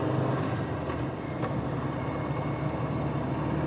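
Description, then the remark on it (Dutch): A steady, low road-and-engine rumble fills the cabin of a moving car driving to Nieuw Schonebeek, constant and fairly loud throughout with no voices and only faint passing ticks. “Ik had gedacht we zitten nu de hele dag samen in de auto.”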